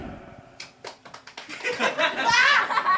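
A live audience at a show in Helsingborg breaks into scattered claps that quickly build into steady applause mixed with laughter, swelling louder toward the end.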